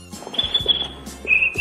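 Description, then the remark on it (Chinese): A cricket named Zhenshanwang, stirred with a broken cattail fan by Ji Gong, chirps in two sustained, shrill high-pitched trills, the second one louder, with a little low rumbling underneath and no talking. “”济公用破蒲扇拨了拨那蛐蛐儿，只听他”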